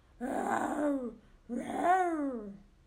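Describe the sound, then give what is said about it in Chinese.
A man's voice, as the dad in a children's story, imitates a dinosaur roar in two loud, growling bursts, each about a second long, with a raspy tone that slides downward in pitch and trails off. “爸爸学恐龙大声吼叫，”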